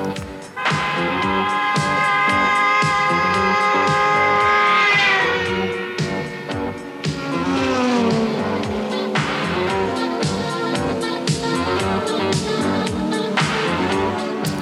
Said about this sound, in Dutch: Nou, waar komt dit? deze is een heerlijke jingle, heerlijk, heerlijke tune wat mij betreft.